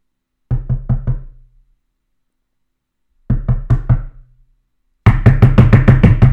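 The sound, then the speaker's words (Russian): Knocking on a door while visiting someone, in three bursts: four steady knocks, a pause, four more, then a louder, faster flurry of pounding. No voices are heard. “Я пришел и я стучу.”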